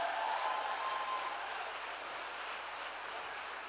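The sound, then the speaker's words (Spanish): A large crowd claps together in a dense, steady wash of applause for God that holds for several seconds and eases slightly toward the end, with no voices on top. “Dale un aplauso fuerte a Dios en esta hora.”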